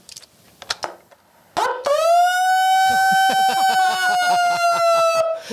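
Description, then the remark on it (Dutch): A horn blares loudly in one long, steady blast lasting several seconds, with a rattling pulse underneath, after a few short knocks and rustles. “Hij kan ook echt toeteren hoor.”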